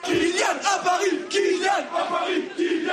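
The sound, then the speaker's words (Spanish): A large crowd of PSG ultras in Paris chants "Kylian", the first name of Kylian Mbappé, in unison, loud and rhythmic, with the massed voices rising and falling in repeated swells for several seconds. “Estos son los ultras del PSG gritando Kylian en París”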